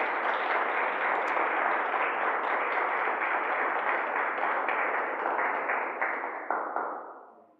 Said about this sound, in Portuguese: Amém e amém. Dê um aplauso ao nosso Deus. Obrigado, Jesus.